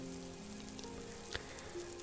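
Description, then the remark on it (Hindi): Soft, steady patter of a light rain shower falling on a tin roof and a small umbrella-shaped peach tree, a quiet continuous hiss with a single sharper drop or tap near the end, no voices. “आड़ू का छत्रीनुमा बौना वृक्ष बारिश की हल्की हल्की बौछारों से भीग रहा था”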